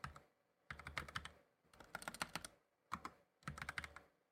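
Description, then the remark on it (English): Rapid clattering keystrokes on a computer keyboard come in four quick bursts separated by short pauses, loud, picked up by a microphone without a noise gate, with no voices. “So sorry to everyone who's had to hear me using my fucking keyboard.”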